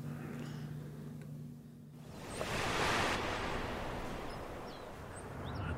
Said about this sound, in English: Uh, it's coming up, and it got like a little itty bitty wave that'll come up. Watch this. You probably hear it.